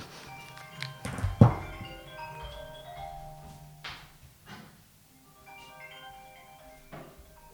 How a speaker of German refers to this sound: So, jetzt klingelt das Handy. Warte mal ganz kurz.